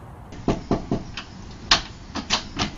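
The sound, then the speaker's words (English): A quick series of three firm knocks on a door, followed by several more scattered raps, fairly loud against a low background hum, with no one speaking. “A knock on the door.”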